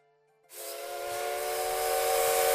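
A steam train lets out a sudden burst of loud, rushing steam hiss that swells and holds, with a steady whistle-like tone ringing through it. No one speaks.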